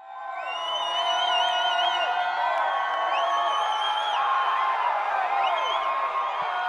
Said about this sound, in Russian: а я была на исторической сцене Большого театра, куча народу, и все дико аплодируют. Прям вот «А, орут, воют, кричат, браво, и все такое.